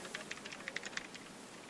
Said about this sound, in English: I can hear you typing. Yeah, I guess. Uh, Black Widow Chroma Tournament Edition keyboard.